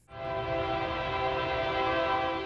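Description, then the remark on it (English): A train sounds its horn in one long, steady, loud blast over a low rumbling of the rails, on railroad tracks in the shadow of an I-37 interchange, about a football field away from the Alamodome, with no one talking. “Near railroad tracks, in the shadow of an I 37 interchange, about a football field away from the Alamodome, sits a house dating back to 1883, a house that now looks entirely out of place.”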